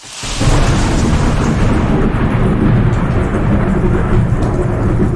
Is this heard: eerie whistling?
no